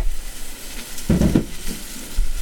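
Shrimp sizzle steadily in a hot pan, a continuous bright hiss with a brief louder burst of crackling and bubbling midway, with no one talking.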